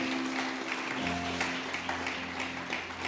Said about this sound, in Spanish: Punte sus palmas, dele fuerte el aplauso a Dios.